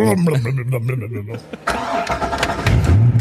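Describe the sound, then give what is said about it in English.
A voice imitates a speedboat engine being fired up: a sputtering, buzzing drone that breaks off briefly, then roars back as a loud, rough, low, forceful rumble. “What's it sound like when we fire it up,”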